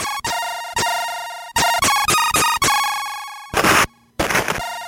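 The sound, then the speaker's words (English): Bright, buzzy 8-bit music from a Commodore 64 karate video game plays loudly with no talking: choppy synth notes in a quick staccato rhythm, ending in two harsh bursts of hissing noise percussion. “Now, if you don't know what this is, it's a little game called International Karate”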